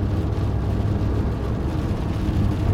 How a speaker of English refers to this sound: I hope the sound on this is good too because it's, it's pissing rain as I whiz by the Maxwell on the Dublin Road.